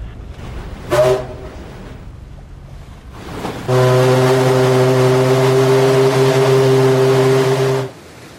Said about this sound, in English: When does the ship go? In about a second, Mrs. Brewster, you'll hear the whistle.